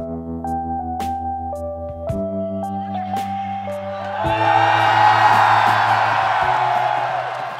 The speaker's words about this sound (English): It's like if people from all over the United States and Mexico, full of anger, were to travel to the border between El Paso and Juarez to sit in some bleachers and face off, both shouting insults and screaming, I'm better than you!